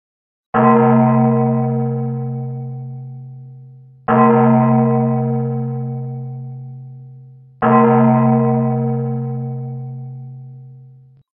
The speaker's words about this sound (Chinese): 场上的钟急促的敲了一遍又一遍，钟声就是命令。这命令连接的便是无数的未知数。每一次钟声响起，人们的心跳都会随之加快。